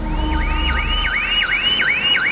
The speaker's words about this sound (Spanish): Una alarma suena y un hombre con aspecto desarrapado coge una escopeta y le pega un tiro por la ventana.